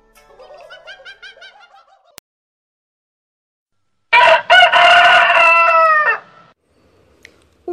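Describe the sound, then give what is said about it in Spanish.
A rooster crows loudly, one long drawn-out cock-a-doodle-doo lasting a couple of seconds, preceded by a softer, warbling bird call and a brief silence. “gallo a una gallina preguntó, ¿Cocorocó? ¿Cocorocó, cocó?”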